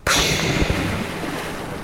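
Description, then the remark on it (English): A sudden splash into ocean water beside a boat as a diver in full gear goes over the side and dives in, followed by a steady rush of churning water and bubbling that fills the rest of the moment, with no voices. “And then you can relax again once you have all of your gear on and you go over the side of the boat, dive into the water”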